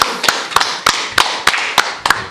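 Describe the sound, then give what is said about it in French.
A single person applauding: seven crisp, sharp claps in a steady, fairly quick rhythm, each one evenly loud, with no voices over them. “Hein, je, je, mêle, mes applaudissements.”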